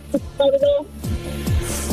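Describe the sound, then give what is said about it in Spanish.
A garbled, broken-up phone line with a caller's voice coming through distorted and choppy, dropping in and out with warbly tones for about two seconds. “Eh, tu teléfono no se escucha bien”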